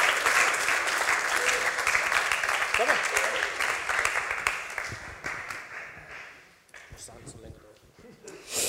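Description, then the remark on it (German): A church audience applauds after a prayer while people find their seats, with dense, sustained clapping that gradually thins and fades toward the end, with a few scattered claps lingering and faint murmuring voices underneath. “Wir klatschen und ihr dürft euren Platz finden.”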